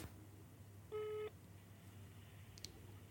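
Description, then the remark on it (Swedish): A single short telephone tone sounds clearly against a quiet background hum, followed a moment later by a faint, brief click, like a call being placed over the line. “Kan vi inte ringa och fråga?”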